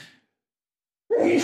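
sneeze

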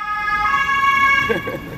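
ambulance siren passing

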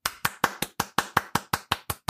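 clapping

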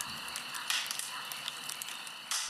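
crackling campfire

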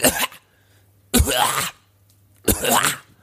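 cough

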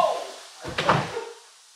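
window being shut

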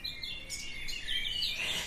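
birds chirping and twittering

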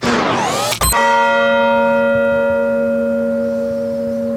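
church bell ringing

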